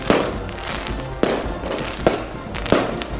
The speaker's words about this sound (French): Et voilà les feux d'artifice qui commencent.